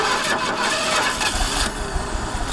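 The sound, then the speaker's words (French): A car engine on an empty road cranks repeatedly with a steady grinding whir, loud, but never catches and fires up. No voices are heard. “Fais chier, putain, c'est pas vrai Moteur de merde”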